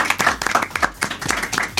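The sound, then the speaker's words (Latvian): A short burst of applause for the hosts and guests: many hands clapping in a dense, irregular patter, sharp and fairly loud, sustained steadily for under two seconds with no talking over it. “Jā, Jā, es domāju, vadītāji gosti ir pelnījuši aplausus.”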